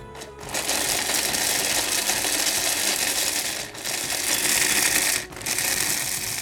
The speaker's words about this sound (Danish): Se, så er manderne kommet ned i, i øh, blenderen. Er du klar? Trykker du?